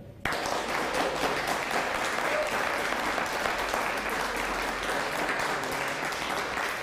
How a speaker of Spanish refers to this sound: vamos a, vamos a, que cuando diga una, una nación, usted da fuerte aplauso a Colombia.